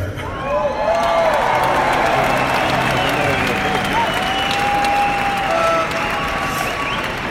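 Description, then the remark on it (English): A large concert crowd in Madrid applauds and cheers steadily for several seconds, a dense wash of clapping and shouting with a few whistles and whoops rising above it. “Uh, if you got some phones to put up, I might take a picture and, and, and tell her that uh, her devoted husband is thinking about her with uh, this whole crowd here in, in beautiful Madrid.”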